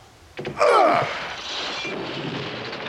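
A locked door is smashed open with one loud, sudden crash and a splintering screech, followed by a couple of seconds of rattling, scattering debris that slowly fades.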